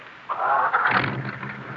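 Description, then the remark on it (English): A car engine starts with the key: a whirring starter cranks for about half a second, then the motor catches into a steady, low rumbling idle. “The keys put them in the ignition and turn them.”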